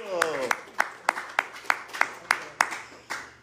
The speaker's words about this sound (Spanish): Un aplauso para ella.